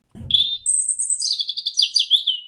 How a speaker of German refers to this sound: Das Rotkehlchen wohnt direkt in den Efeugebüsch vor mein Zimmer. So schön singt es morgens.